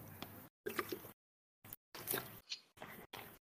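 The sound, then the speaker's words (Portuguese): Someone drinks water, a series of short wet gulps and swallowing noises broken by brief silences, with no talking. “Ah, peraí, tava bebendo água aqui.”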